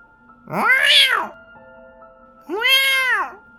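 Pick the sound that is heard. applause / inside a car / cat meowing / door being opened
cat meowing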